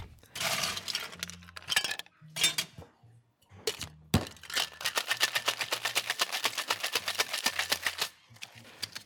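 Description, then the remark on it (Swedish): Ice rattles hard inside a cocktail shaker holding raspberry sugar syrup, lemon juice, water and wood sorrel, first in a few short bursts, then in a fast, steady rhythmic shake of clattering cubes that crush the sorrel, loud with no talking. “När han skakar krossas oxalisen av isen och släpper ut sina smaker.”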